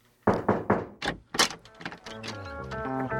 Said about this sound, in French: Allez, on ouvre les portes.